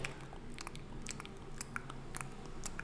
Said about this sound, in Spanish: suena como raro, como está masticando un chicle con el culo. Así suena comer pan, ma.